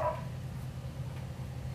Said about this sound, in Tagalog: Tita, narinig ko yung aso. Hindi, yung sa kapitbahay namin yun.